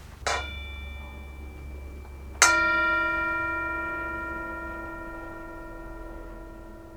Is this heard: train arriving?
no